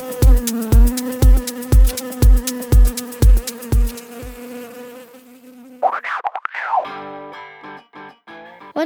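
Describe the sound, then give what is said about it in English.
Bees buzz in a steady, loud drone over a regular thumping beat, then the buzz gives way to warbling, swooping electronic tones. No one speaks. “You put the rocks in your bowl and put water in it up to where you think the bees can sit and drink.”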